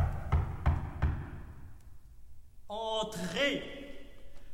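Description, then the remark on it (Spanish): Four firm, evenly spaced knocks on a door, followed by a short pause before a voice begins speaking. “Tocan a la puerta, de inmediato abre y un señor se presenta como periodista de París.”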